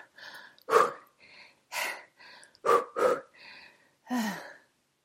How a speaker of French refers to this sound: Vite De plus en plus vite Mais rapidement, elle s'essouffle.